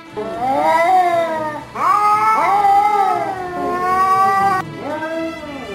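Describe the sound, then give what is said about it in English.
A cat yowls loudly in a few long, drawn-out wails whose pitch bends up and down, with barely any pause between them and no other sounds. “Do you sound more like a wet cat?”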